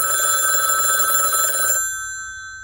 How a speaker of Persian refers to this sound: نشستم به نگاه کردن تلویزیون که یهو تلفن زنگ خورد